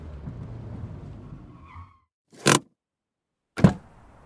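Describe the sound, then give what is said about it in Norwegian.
A car engine rumbles low and slows to a stop as the car parks in front of a darkened house right by the roaring sea, then cuts out into silence, followed by two sharp thuds a second apart, like car doors shutting. “Mamma har parkert bilen foran et mørklagt hus, helt inntil det brusende havet.”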